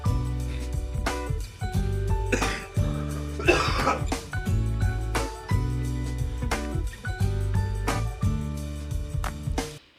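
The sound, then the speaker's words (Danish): A person coughs hard and repeatedly in a sustained fit in a studio, with harsh bursts and throat clearing, and no talking; the cough is not from corona. “Jeg ved ikke, om du er klar nu efter dit hovedanfald”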